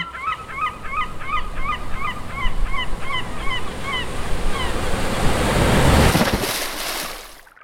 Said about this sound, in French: C'était la première fois que je voyais la mer de si près. Autant d'eau, ça marque, mais ça effraie aussi. Je me souviens avoir regardé les vagues s'écraser à côté de moi.